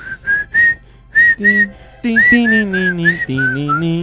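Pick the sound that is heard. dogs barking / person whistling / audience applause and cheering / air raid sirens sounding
person whistling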